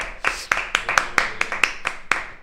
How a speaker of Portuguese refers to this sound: Palmas, palmas aí, produção.